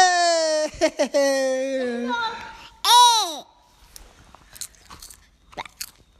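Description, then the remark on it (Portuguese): Popcorn being crunched and chewed: a few soft, dry crunches scattered through the second half, after a loud, high, wavering vocal-like whine and a rising-and-falling squeal at the start. “Pipoca.”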